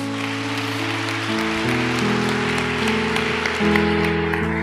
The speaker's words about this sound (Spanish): Denle un aplauso a Dios entonces.